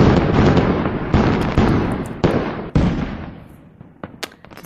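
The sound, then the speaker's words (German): A new fireworks sound-effect signal: a series of loud booming bursts, about five in quick succession, each trailing into rumble, followed by sharper crackling pops as the sequence fades out. “So, damit wären wir beim Feuerwerk.”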